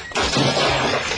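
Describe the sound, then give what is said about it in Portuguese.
A sudden loud crash as Robin trips and falls onto Batman and Robin's cuckoo clock, followed by a second of harsh shattering and clattering debris, with no voices. “Você caiu em cima do nosso cuco!”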